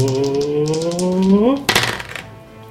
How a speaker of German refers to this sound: Ja, da würfelt die höhere Zahl.